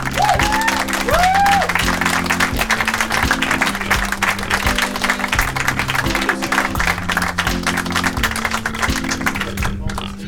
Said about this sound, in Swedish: Eh, ska vi ge dem en applåd så, så välkomnar vi upp på scenen